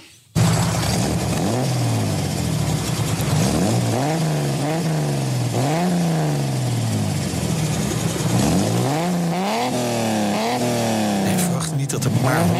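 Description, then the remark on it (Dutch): A 150 hp inline-six sports car engine, in a homologation-special car weighing about 1040 kg with all-round independent suspension, revs hard through repeated rising and falling sweeps, climbing in pitch then dropping back as gears change, loud and continuous for the whole stretch. “Had 150 pk, 6 in lijn, rondom onafhankelijke wielophanging. daar hebben we geluid van, laten we hem even horen.”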